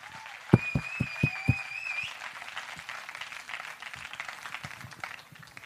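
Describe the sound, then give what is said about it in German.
An audience bursts into applause for an attendee who travelled more than 500 kilometres, with several sharp claps at the start and a shrill whistle over them, then settles into steady, dense clapping that carries on without any talking. “Einmal einen Applaus”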